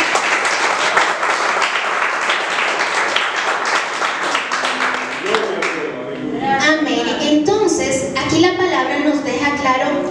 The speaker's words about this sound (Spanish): Amén. Amén. un aplauso al Señor.